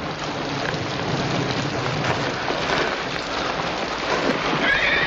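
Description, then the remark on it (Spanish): Agitated horses neighing and whinnying in a thunderstorm after lightning fells a tree, one horse trapped under the fallen tree, partly buried under a steady roar of heavy rain and storm noise, with a higher whinny rising near the end. “Los caballos están muy alterados.”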